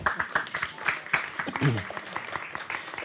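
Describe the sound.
An audience breaks into steady applause, a dense patter of many hands clapping at moderate loudness, with a voice briefly audible over it partway through.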